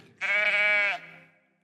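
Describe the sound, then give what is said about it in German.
A person imitates a sheep with a single loud, drawn-out bleat lasting under a second. It ends abruptly and a faint echo trails off, with no talking around it. “So tönen wir.”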